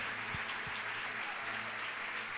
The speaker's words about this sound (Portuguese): Ei, salva de palmas para eles.